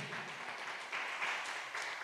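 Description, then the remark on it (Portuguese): Steady crowd applause, a dense wash of many hands clapping at once with a few brief surges, moderately loud and with no one speaking over it, as the audience applauds Jesus at an evening prayer service. “Aplauda Jesus mais uma vez.”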